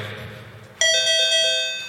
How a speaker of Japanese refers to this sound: ピンポンピンポン